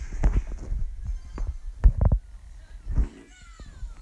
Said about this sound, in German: Mein Bruder hat gerade gefurzt. Sorry Leute, wegen dem.